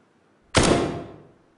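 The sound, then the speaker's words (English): A single sharp gunshot cracks out loudly and alone, followed by a short, boomy echo that rings and fades within about a second; reverb has been added to make it sound as if recorded inside a bathroom. “By adding reverb, we can make it sound like it was recorded inside a bathroom”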